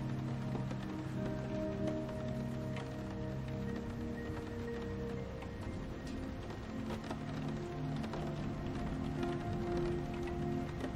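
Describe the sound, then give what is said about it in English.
Steady rain falls throughout, a continuous soft patter with scattered drops, accompanied by a low, sustained humming drone underneath. No one speaks. “The sound of the rain begins to fade from your consciousness as your mind finds that perfect place of comfort for the night.”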